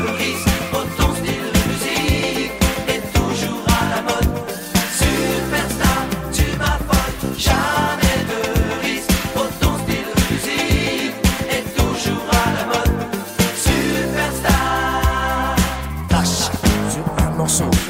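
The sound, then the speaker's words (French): A French pop song plays at full, steady volume, with a driving beat, layered melodic instruments and what sounds like a sung vocal line running throughout. “un extrait seulement d'une chanson d'élégance, une autre chanson passée totalement inaperçu”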